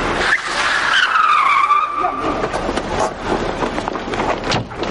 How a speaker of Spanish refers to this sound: Un coche llega derrapando a la puerta del hotel. Torres sale del mismo conducido por el entrenador del Matuseu... y en el que se lee un cartel de recién casados.